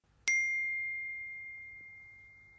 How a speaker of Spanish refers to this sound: En algún punto no quise volver a escuchar este sonido, a pesar de ser la señal de que otra persona quería hablar conmigo.